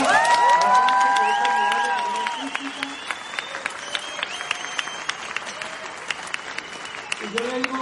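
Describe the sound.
A crowd bursts into sustained applause for a violist who has held the first viola desk of the Bogotá Philharmonic for 38 years, dense clapping with high whoops and cheering voices at first, then settling into steadier, thinning claps that carry on to the end.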